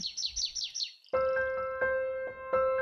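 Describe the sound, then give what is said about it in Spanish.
A small bird chirps rapidly, five or six bright descending tweets in about a second. It stops abruptly and a sustained, tonal musical passage with steady repeated notes takes over. “le gusta la música, eh, los pajaritos, eh, el sonido de cuando uno abre un paquete de papas fritas, esas cosas le gustan.”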